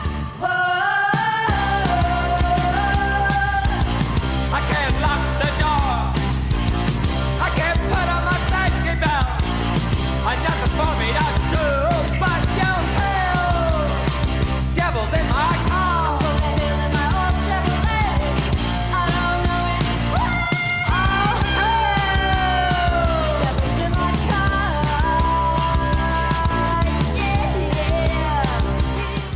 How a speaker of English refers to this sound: this one I uh, I came across just looking for songs about the devil, and um, it's "…" by …